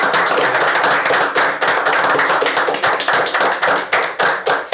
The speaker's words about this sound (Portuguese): Eu acho que, cara, ele merece nosso salvo de palmas de pé.